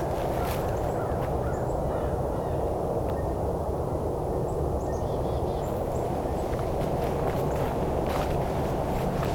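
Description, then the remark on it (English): Several blue jays, at least four birds calling from about four locations, give harsh, scattered cries from different directions over a constant low roar of traffic from the 401 highway. No one speaks. “number of blue jays here. Here i coming from about four locations. So at least four birds.”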